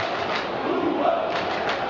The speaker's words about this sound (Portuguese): a torcida do Grêmio reverencia aí o Luan, dando uma força aí para o camisa número 7 do Grêmio que está fora do jogo de hoje.